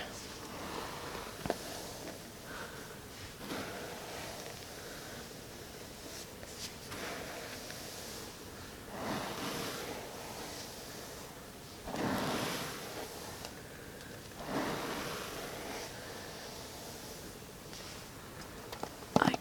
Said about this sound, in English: could probably brush my hair all day long because it's so relaxing for me.